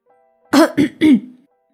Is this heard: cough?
yes